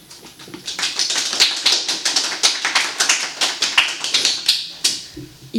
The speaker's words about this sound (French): Veuillez l'accueillir avec des grands applaudissements.